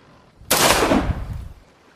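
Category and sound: sound effect, distant gunshot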